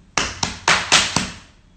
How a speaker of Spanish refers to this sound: Entonces salgo corriendo como una loca hasta la fábrica de Bayón que hay a seis cuadras y cuando llego a la puerta aplaudo así.